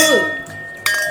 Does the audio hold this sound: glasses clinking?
yes